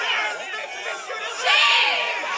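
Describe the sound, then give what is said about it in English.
A crowd of students at a vigil for a student who was shot reacting loudly, many voices overlapping in raised, agitated chatter with bursts of shouting, swelling louder toward the end and holding steady throughout. “And instead they get this reaction. You can't reason with this crowd.”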